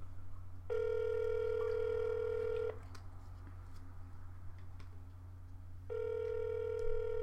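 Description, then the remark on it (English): An outgoing phone call rings with no answer: two long, steady ringback tones separated by a pause of a few seconds, heard clearly over a low background hum with no one speaking. “I wonder if we're gonna fail on these phone calls today.”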